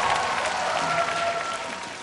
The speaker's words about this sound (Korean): 씨에게 박수 부탁드리겠습니다.